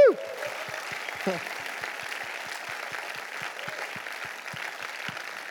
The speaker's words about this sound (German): Ich möchte ICF Zürich begrüßen, auch unsere Locations, das heißt Rapperswil, Winterthur, Zürich Oberland, Fraufeld und Bruck, los Locations. Ein Applaus geben von Zürich an alle unsere Locations.